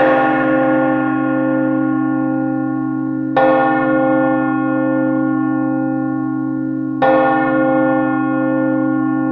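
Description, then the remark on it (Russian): A large, deep bell tolls three times at slow, even intervals, each strike ringing out loudly with a rich, lingering hum that carries into the next. No voices. “И где этот пресловутый колокол? Ну, давай, дзынь, дзынь!”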